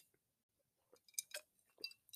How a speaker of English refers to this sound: You can hear like the like the ice. So let me chew that up real quick.